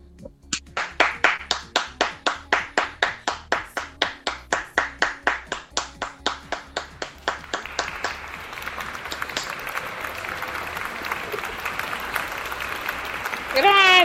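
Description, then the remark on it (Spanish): A Bata CM Radio audience claps in steady, rhythmic unison for several seconds, then breaks into a dense, continuous wash of applause that holds to the end. “¡Aplausos, por favor!”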